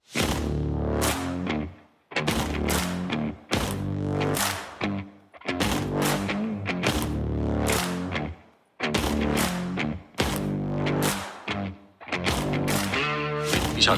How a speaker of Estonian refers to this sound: noh, paneme muusika peale